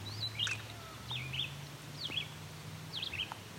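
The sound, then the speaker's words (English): Four short bursts of calls from several ring-billed and herring gulls flying over sound at a steady pace, each a sharp, high, slurred cry, fairly faint over a low steady hum. “Several gulls going over. Looks to be a mix of ring-billed herring gulls. You might hear them. They call.”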